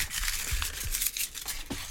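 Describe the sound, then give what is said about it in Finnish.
Paper slips rustle and crinkle, a steady dry scratchy crackling with several sharper crumpling bursts over a couple of seconds, no voices present. “No niin, paperilaput kahisee täällä”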